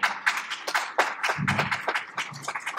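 A round of applause from a group for a pastor who has just spoken, with dense, irregular hand claps overlapping at a steady moderate loudness, and a brief low vocal sound rising under the clapping midway through.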